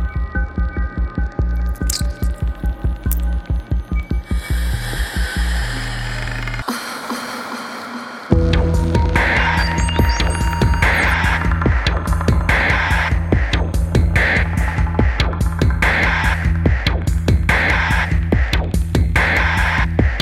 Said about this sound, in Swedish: När det är ett finger som tränger in i en... Det är en clementin egentligen. Och jag har gjort ett ljud det. till det.